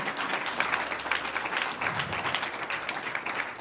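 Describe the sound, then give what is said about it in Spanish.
A church audience breaks into sustained applause to the Lord, many hands clapping in a dense, steady wash of crackling claps that holds evenly throughout without pause. “Un aplauso al Señor, un aplauso al Señor, aleluya.”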